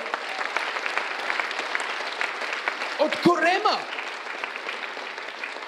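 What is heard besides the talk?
audience applauding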